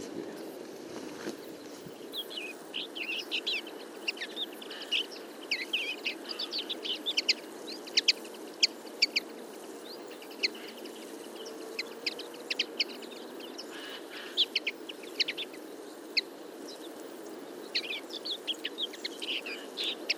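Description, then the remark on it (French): A flock of about fifty common linnets calls and twitters continuously, with quick overlapping chirps and short trills, including a short autumn song, over a steady low background hum. “Voilà pour cette belle rencontre avec la linotte mélodieuse.”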